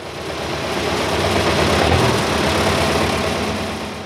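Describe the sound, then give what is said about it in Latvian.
A heavy tractor engine rumbles, idling with a deep, steady roar that swells slightly midway and then settles, with no voices present. It is a large, high-power front loader tractor, heard on the night to 24 February 2021 in Jēkabpils municipality, Latvia. “Naktī uz 24. februāri Jēkabpils novadā ierūcis traktors.”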